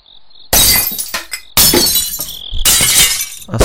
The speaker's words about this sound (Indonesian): Tiba-tiba kita mendengar ada suara kayak gelas atau piring gitu yang jatuh. Suaranya pun berasal dari pantry kantor aneh.